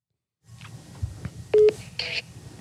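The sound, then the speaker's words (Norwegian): A telephone number is dialed on a keypad to call someone: a quick series of electronic beep tones, fairly loud, over faint background with no talking. “Skal vi ringe en som òg har det som favorittlov?”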